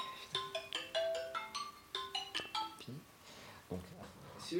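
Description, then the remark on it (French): A phone ringtone for an incoming call from Universal that goes unanswered plays a bright, melodic tune of quick repeated notes for a few seconds, then stops as faint voices murmur in the background. “C'était Universal au téléphone.”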